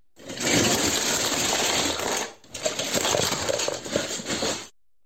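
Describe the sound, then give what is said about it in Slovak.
Lego bricks pour out of a storage box at home in a loud, dense plastic clatter, two sustained bursts of rattling pieces separated by a brief pause, with no talking. “pre rodičov malých detí predpokladám, že to nebol tajný zvuk, ale teda ak áno, išlo o vysypanie lega z odkladacieho boxu.”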